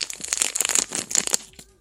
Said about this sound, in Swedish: Hör ni prasslandet?